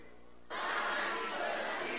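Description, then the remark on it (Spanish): After a half-second of quiet, a group of voices bursts into a loud, sustained shout together in Spanish, '¡Osana al hijo de David!', filling the rest of the moment like a crowd crying out in unison. “A ver, vamos a ver, como si tú estuvieras ahí, grita, ¡Osana al hijo de David!”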